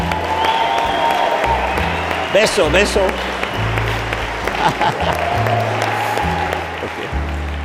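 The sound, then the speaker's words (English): An audience claps steadily and densely for several seconds, a continuous crackling wash of many hands, while a few voices chant together over the applause as a husband and wife are introduced. “Un aplauso, beso.”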